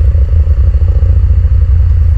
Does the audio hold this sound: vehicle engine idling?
yes